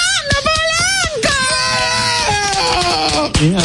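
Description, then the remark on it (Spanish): A man shouts loudly in welcome to his brother, a long, drawn-out call that wavers and rises in pitch, stretching his voice for several seconds with only brief breaks. “¿Tú eres envidioso? Yo grité primero.”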